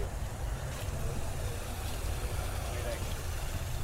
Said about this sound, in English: That's the fireworks truck, dude.